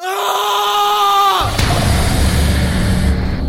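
A man lets out a very loud, sustained, high-pitched scream right behind the listener in a dark little room for about a second and a half, which cuts off abruptly into a steady, low, rumbling roar of noise.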